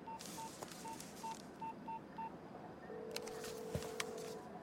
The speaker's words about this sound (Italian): Qualcuno telefona.